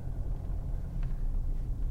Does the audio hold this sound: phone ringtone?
no